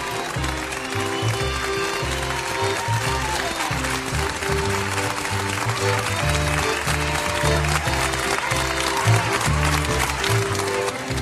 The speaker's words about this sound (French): Chaque soir à 20h, toute la France se met aux fenêtres pour vous applaudir. Vous remercier. Et vous soutenir.